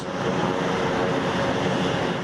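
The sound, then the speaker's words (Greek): A steady, loud roar of Air Tractor firefighting plane engines on the ground at Democritus airport in Alexandroupolis while the planes refill with water from tanks to fight the forest fire in Dadia; continuous and unbroken throughout with no voices. “Είναι η στιγμή που τα αεροσκάφη Ελτράκτορ έχουν προσγειωθεί στο αεροδρόμιο Δημόκριτος της Αλεξανδρούπολης και γεμίζουν νερό από τις δεξαμενές προκειμένου να κατασβέσουν τη μεγάλη πυρκαγιά που καίει στο δάσος της Δαδιάς.”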